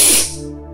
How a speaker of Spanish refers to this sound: Vas nuevamente a respirar profundo. Exhalas profundo y despacio. Inhalas profundo.